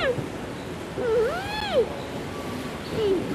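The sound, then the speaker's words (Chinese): Three-month-old twin giant panda cubs, Rui Bao and Hui Bao, squeak and whine at their first public appearance at Everland in South Korea. Their cries are thin, high and wavering: a drawn-out rising-and-falling squeal in the middle, with shorter chirps at the start and end, over a steady hissy background. “不时发出嘤嘤声。”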